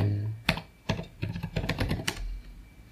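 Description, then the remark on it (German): Crisp computer keyboard typing as someone searches on Google: a few spaced key presses, then a quicker irregular run of clicks with a couple of heavier strikes, with no one talking. “Okay, jetzt nochmal aktives Googeln.”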